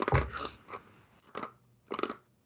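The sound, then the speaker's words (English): Crisp crunching of ice being chewed in the middle of winter: a loud initial bite, then a few more sharp crunches spaced out over a couple of seconds, with no talking. “So I'm chewing on ice.”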